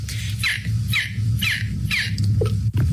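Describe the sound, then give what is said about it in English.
A woman imitates a seagull with a quick series of five or six sharp, descending squawks in a steady rhythm, fairly loud, over a low background hum. “there's a TikTok challenge where you do, you make the noises of seagulls”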